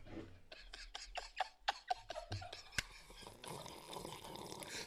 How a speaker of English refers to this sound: And then sips.